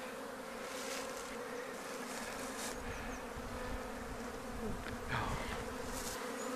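A dense, steady drone of many honeybees buzzing around a hive, continuous, with a few individual bees flying past and swelling slightly louder near the end as the listeners stand in front of the bees' flight path from a corner of the hive.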